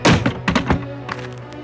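A loudspeaker is kicked repeatedly: four or five heavy, dull thuds in quick irregular succession, then a couple of softer knocks, over a faint steady musical hum.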